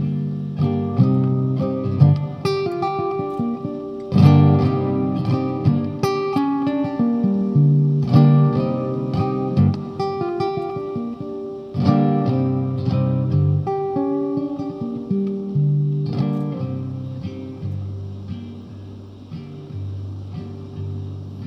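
A live song performed in a studio opens with a steady instrumental introduction: sustained, harmonically rich chords and repeated notes at a fairly even loudness, with no singing yet.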